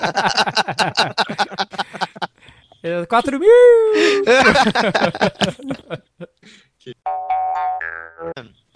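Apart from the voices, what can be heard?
dog whining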